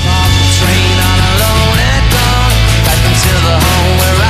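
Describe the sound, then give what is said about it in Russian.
A sampled breakbeat drum loop, the six-second Amen Break drum solo, drives a loud, dense song, its snappy hits layered over heavy sustained bass and bright synth tones, with no voices. “Это и называется Amen Break. И это рассказ о самом сэмплируемом 6-секундном соло на ударных в истории.”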